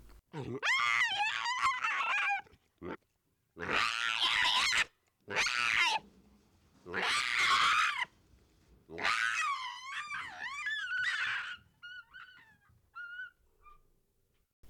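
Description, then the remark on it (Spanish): An eerie alien creature call: several loud, warbling shrieks with bending pitch come in separate bursts, ending in faint, fluttering chirps as the sound trails away. No one speaks. “Por ejemplo, que nos imaginemos que es un sonido de un monstruo alienígena o sino no un ser, eh, una criatura del más allá podría ser, digámoslo así.”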